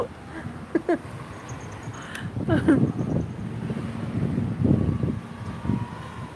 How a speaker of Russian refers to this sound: Хочу вам сказать, что ветер отчасти притих. Хоть он и пока дует, но вот это вот он перестал поднимать пыль где-то. Успокоился.